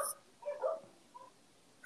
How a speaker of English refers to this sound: Oh, God bless those dogs, by the way.